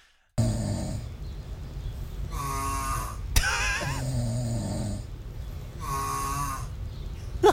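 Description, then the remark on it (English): Loud snoring recorded overnight by a sleep-tracking app at a home in Washington, DC: rasping, droning breaths that swell and fade in a slow rhythm about every three seconds, over a steady low rumble, with no talking. “Listen to this snoring. I mean, this is fucking crazy. You can hear the total different, the totally the different sounds of snoring.”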